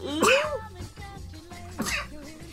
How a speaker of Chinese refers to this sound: 天，我太想打喷嚏。